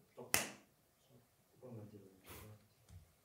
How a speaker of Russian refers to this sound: Ну, прям хлопни.